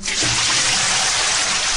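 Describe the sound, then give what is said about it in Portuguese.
A loud, steady rush of water splashing and pouring, as if a bucket were being emptied, filling the whole short moment with no voices. “Ela está precisando de um balde de água fria, com certeza.”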